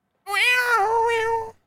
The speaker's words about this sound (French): C'est un chat, ça. C'est un chat.